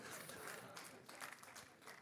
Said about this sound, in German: Ich werde dieses Jahr 40. Yeah, come on. Ja, das ist Applaus wert, oder?